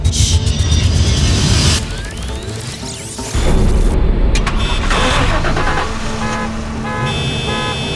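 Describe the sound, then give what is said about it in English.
A dense burst of many car engines in a parking garage cranking and revving together as every car is turned on at once, with horn toots and a sharp clatter layered in, loud and chaotic, echoing. “You just turned on every car in this parking garage.”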